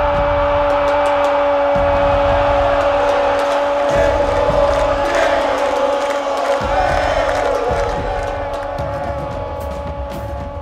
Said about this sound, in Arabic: هكذا بالهتافات والعبرات القت الجماهير نظره الوداع الاخيره على معشوقها الاسطوره دييغو ارماندو مارادونا النجم الارجنتيني العبقري